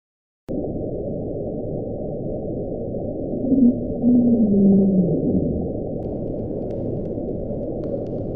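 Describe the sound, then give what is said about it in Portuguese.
A low, moaning underwater tone rises and sweeps over a few seconds above a constant rumbling hiss of deep-sea noise, eerie with no voices present; recorded by hydrophones in the equatorial Pacific Ocean on 1 March 1999, lasting about 15 seconds and picked up by all the microphones there. “O Julia foi captado em 1 de março de 1999, durou aproximadamente 15 segundos e foi autossuficiente para ser ouvido por todos os microfones do Oceano Pacífico Equatorial um pouco assustador demais, vocês não acharam?”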